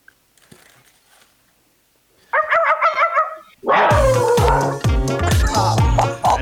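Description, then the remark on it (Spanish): A person imitates a dog, starting with soft breathy sounds, then a short series of yipping barks, followed by louder, rapid, gruff barking. “Yo me voy por lo clásico, el sonido del perro.”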